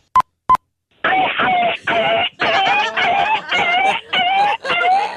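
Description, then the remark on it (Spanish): Two short electronic beeps, then a person vocally imitates a kicked dog yelping: a rapid run of about seven loud, whiny, pitch-sliding cries with brief gaps, thin and phone-like in tone. “Un perro que acaban de patear.”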